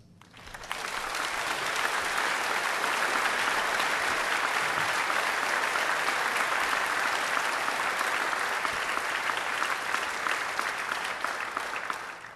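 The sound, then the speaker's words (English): Sustained audience applause, a dense crackle of many hands clapping that swells in quickly, holds steady and loud for over ten seconds, then begins to taper at the end. No voices are heard. “They've never applauded for me that long.”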